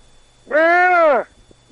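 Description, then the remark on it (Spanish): A single goat bleat, a drawn-out wavering cry lasting under a second, loud, standing alone against a quiet background. “Echa, las cabras, para arriba.”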